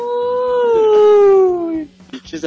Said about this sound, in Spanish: Lobos, güey.